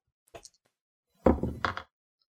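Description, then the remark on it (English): Dice are rolled onto a table: a light tap first, then a clattering rattle lasting about half a second before going quiet, with no talking; the roll comes up a nine. “So can I can I roll for some kick some ass and just fucking knock this thing out so that we can move on to where we need to be?”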